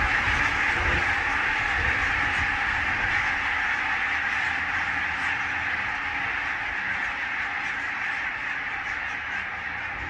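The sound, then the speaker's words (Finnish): A large flock of geese takes off, a loud, dense chorus of overlapping honks and calls filling the whole stretch, with a steady roar of wind and wingbeats underneath; recorded on a phone in windy weather. “Siinä läks iso joukko”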